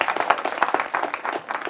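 A church audience applauds as someone sits down, a dense wash of many hands clapping at once with steady, moderately loud energy across the short clip and no voices standing out.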